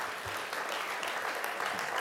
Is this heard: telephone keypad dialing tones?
no